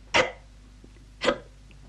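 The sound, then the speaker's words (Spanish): Two abrupt, fairly loud hiccups about a second apart, each a short sharp gulp of breath with quiet between them, likely a person imitating the sound. “Porque resulta que el duende glotón se había tragado una barra de jabón creyendo que era un queso, y el jabón le había dado un hipo tremendo.”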